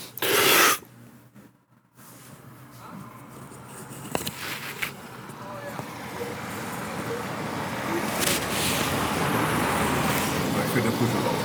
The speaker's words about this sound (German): Das ist auf jeden Fall original Reykjavik-Straßenlärm.